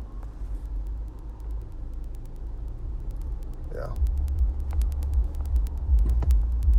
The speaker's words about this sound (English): That's the problem when you're driving rush hour traffic is you deal with shit like this.